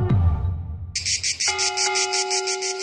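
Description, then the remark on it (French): After a ringing bell-like strike fades, cicadas in the sunny south start up, a loud, dense, rapidly pulsing buzz that continues steadily to the end, with a faint sustained tone beneath it. “C'est le sud, le soleil, l'huile d'olive et les inévitables cigales.”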